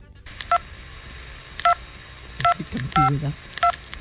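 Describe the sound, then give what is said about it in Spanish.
Five short touch-tone dialing beeps sound at uneven intervals, each a clear two-tone electronic blip, over a faint background hiss with a brief low muffled rumble near one beep. “Uy, uy, uy, pero sí, pero tú desde dónde me estás llamando, hijo?”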